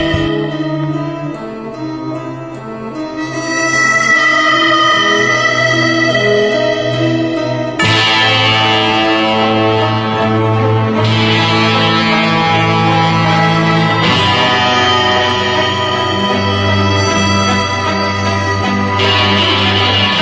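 A harmonica melody ringtone plays loudly and steadily, with long sustained, reverberant notes and chords that shift in a couple of distinct phrases. No voices.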